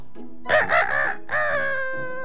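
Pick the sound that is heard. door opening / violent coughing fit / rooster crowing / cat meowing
rooster crowing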